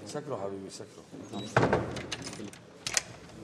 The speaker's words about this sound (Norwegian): Døren lukkes bestemt igjen av opprørssoldaten.